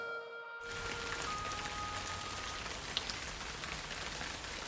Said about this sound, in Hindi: 28 अगस्त 2002 आज शाम से ही बड़ी तेज बारिश हो रही थी पूरे इंदौर में मौसम वैसे ही सुहाना सा था लेकिन बरसात के बाद ठंडा ठंडा हो रहा था